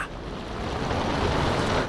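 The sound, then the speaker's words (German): A roaring storm at sea, with a dense, continuous rush of wind and crashing water that swells slightly louder and stays steady throughout, with no voices. “schreit die Krähe gegen das Gebrüll des Sturms an.”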